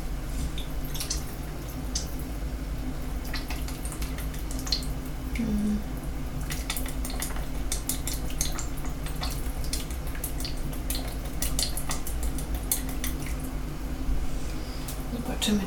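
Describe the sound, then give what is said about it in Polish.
Maggi liquid seasoning trickles and drips into a fairly large soup pot in a series of small splashy drops, over a steady low hiss and hum. “Najpierw rzucę magii przyprawę. Właściwie wleję”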